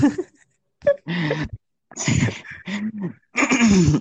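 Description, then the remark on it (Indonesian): Someone coughs after laughing, about five loud, harsh bursts in an uneven rhythm, some with a rough voiced edge, separated by short pauses with no talking. “Batuk ya gara-gara lu ketawa tadi ya, gara-gara result ya.”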